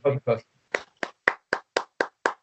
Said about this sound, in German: Ja, Applaus, Applaus, Applaus. Applaus, Applaus.